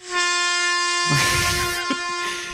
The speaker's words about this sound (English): Can we get a uh, a long semi honk for our Lord and Savior Jesus?